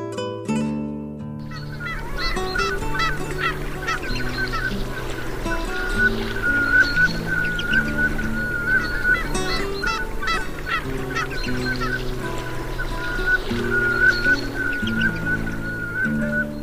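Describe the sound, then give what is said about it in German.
Velvet scoter calls: a long run of repeated nasal, honking notes, steady and fairly loud, with many overlapping calls against a continuous low droning background. “Das war die Samtente.”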